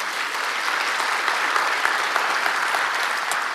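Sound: audience applauding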